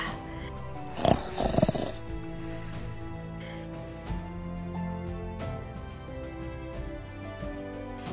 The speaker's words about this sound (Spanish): Y roncaba. y roncaba.